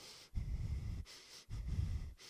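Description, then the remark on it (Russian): A voice performs rhythmic, exaggerated breathing for a dubbing recording: two long, breathy inhale-exhale cycles with short pauses between them, no words spoken. “если он ничего не говорит, он дышит, а в дубляже тебе нужно писать и твое дыхание на всякий случай, потому что ты не знаешь, может это войдет в финальный монтаж, может быть не войдет”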